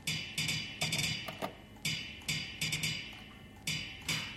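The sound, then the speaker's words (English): A sampler plays a recorded gong, triggered each time electrical contacts pass copper strips on the top disc of a turning stack. The gong strikes over and over in a steady, repetitive rhythm, each bright metallic hit ringing briefly before the next. It plays alone at moderate volume, with no voices. “And then each time these electrical contacts go past, it triggers a sampler which has got a recording of a gong.”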